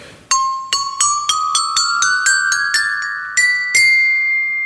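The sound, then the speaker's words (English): A xylophone made from old water heater pipe, cut to length and tuned, in a farm shed, is struck about a dozen times in an ascending run of bright, ringing notes, the last tone left to sustain and fade. No one speaks. “What we're looking at here is several sets of xylophones made from old water heater pipe, right?”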